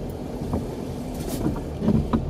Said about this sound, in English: Listen to those tires.